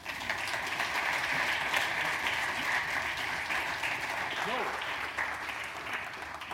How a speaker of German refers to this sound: Bitte einen kräftigen Applaus für Hajo Schumacher.